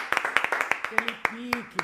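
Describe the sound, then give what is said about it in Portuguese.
A quick burst of sharp hand claps, a dozen or so sharp smacks in a loose, uneven rhythm, with a voice calling out briefly partway through. “uma salva de é palmas.”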